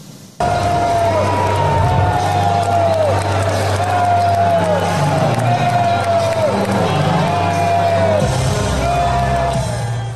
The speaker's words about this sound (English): The Texas senator's Friday night speech to the crowd was met with boos.